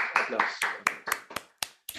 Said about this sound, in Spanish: Aplausos para tu esposa. Claro, aplausos.